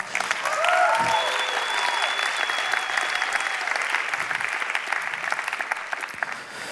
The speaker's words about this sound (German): Geben wir ihr nochmal einen Applaus.